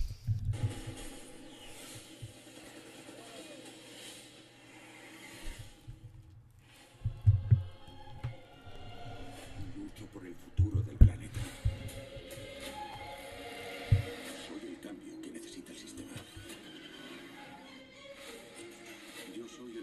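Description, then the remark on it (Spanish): A cinematic trailer soundtrack of rumbling low drones and tense layered music, punctuated by heavy booming hits a few seconds apart, with faint voices mixed in. “Aquí ya tengo el, el tráiler. Vamos a, escuchar el tráiler y a ver qué, qué buenas impresiones nos da.”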